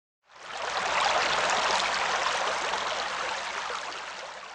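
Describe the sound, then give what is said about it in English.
River water flows steadily with a continuous rushing, bubbling wash that fades in quickly and holds at an even, fairly loud level. No voices are present. “The flat tire floats on water and glides along the river.”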